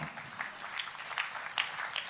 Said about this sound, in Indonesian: Yang percaya tepuk tangannya jangan separuh hati. Yang percaya tepuk tangannya segenap hati.